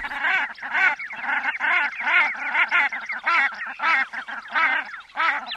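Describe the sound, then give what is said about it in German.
A common shelduck gives a rapid series of nasal, honking calls, repeated in quick rhythmic bursts, loud, with no other voices. “Schwarzen Kopf und so einen schönen rot-orangenen Streifen über die Brust und noch einen schwarzen Klecks auf die Flügel und hinten am Schwanz auch nochmal so orange und schwarz und dann ist es schon eine Brandgans und ein schöner Vogel.”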